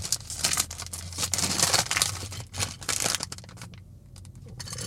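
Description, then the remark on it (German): Crinkly plastic bag being pulled and crumpled in repeated bursts of rustling and tearing sounds as someone struggles to get it open; no talking. “Ich krieg's nicht offen.”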